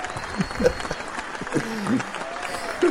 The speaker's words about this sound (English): There's applause right now. I'm being applauded by the audience, and you know why? Because I edited it in there. I put it there.